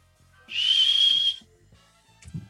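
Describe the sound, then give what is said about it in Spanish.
A person whistles a single breathy, sustained note that rises slightly in pitch for about a second, imitating a passing airplane, over a faint low hum, followed by a brief soft thump. “¿Ese es el avión?”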